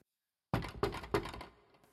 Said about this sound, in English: They dressed in their best clothes and chapped at the palace door.